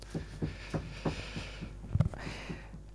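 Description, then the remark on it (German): Muffled, low knocking thuds repeat in a steady rhythm of about three per second, with a slightly louder double knock near the end. The knocks are dull and moderately quiet, and no one speaks. “Da klopft die AfD, mein mhm.”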